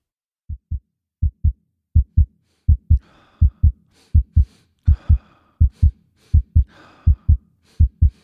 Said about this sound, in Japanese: 規則正しい心臓の鼓動とともに呼吸は全身の細胞に酸素を送り込み全身にほのかな熱を灯す